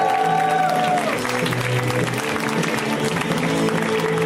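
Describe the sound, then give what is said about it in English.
Steady, loud applause from a comedy show audience welcoming comedian Emily Maya Mills to the stage fills the whole stretch, a dense wash of clapping with some crowd noise, while walk-on music with sustained tones plays underneath at the start. “Let's hear right now for Emily Maya Mills, guys. Give it up for Emily.”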